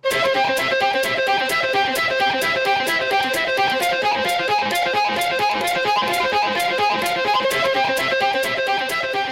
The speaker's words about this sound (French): il le fait avec une flûte traversière, en mettant ses prises en boucle pour rejouer dessus en créant d'autres instruments